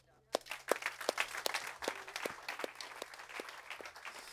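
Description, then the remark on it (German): An audience applauds, a dense wash of many hands clapping with a steady, evenly spaced beat of louder claps running through it, moderately loud, lasting a few seconds. “Immer noch einen kleinen Applaus.”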